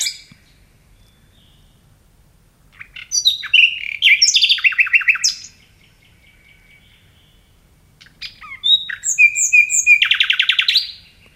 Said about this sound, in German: Jetzt erhoffe ich mir von Ihnen, dass Sie als Biologin Nachtigallisch in Deutsch übersetzen können, uns also vielleicht sagen können, was diese Nachtigall hier per Gesang mitzuteilen hat.